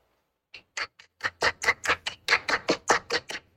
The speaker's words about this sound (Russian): я надеюсь, что ты слышишь эти аплодисменты. Они, конечно же, адресованы в твой адрес. Я тебя с этим поздравляю.